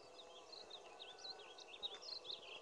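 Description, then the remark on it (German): Faint, high bird chirps flicker repeatedly over a steady hiss of outdoor forest ambience, the calls irregular, with no voices present. “Der Vogel zwitschert und der Metallklotz fällt.”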